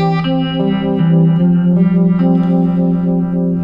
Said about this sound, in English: Uh, this is also a love pedal. It's called the Pickle Vibe. So it kind of gets this uh, phase shifter, but it's different. It's like more like a Univibe pedal. That has adjustable speed.